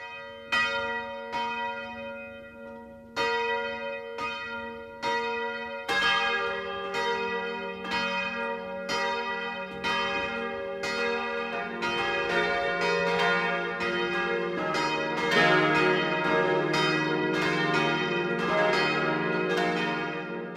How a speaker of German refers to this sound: Es ist 12 Uhr. Das Mittagsläuten kommt heute aus Scheinfeld in Mittelfranken.